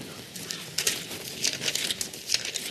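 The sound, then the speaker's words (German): Pages of a book being flipped to find Matthew 22: a series of quick, dry papery rustles and crinkles coming in irregular bursts with no talking. “Lasst uns äh, dort kurz blättern.”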